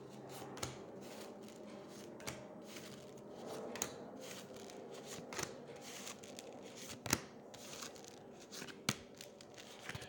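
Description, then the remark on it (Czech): Tarot cards being shuffled for a reading, a steady papery rustle punctuated by sharp slaps and flicks as the deck is cut and riffled repeatedly, with no voices. “já se dívám na jeho fotku, míchám mu to karty a podíváme se, jak to bude mít on.”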